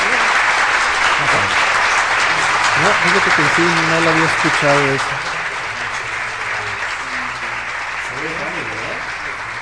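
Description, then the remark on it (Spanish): A live audience claps steadily in a dense wash of applause that fills the whole clip, easing slightly toward the end, while a man talks over it. “pues al público que está aplaudiendo, pues muchísimas, muchísimas gracias.”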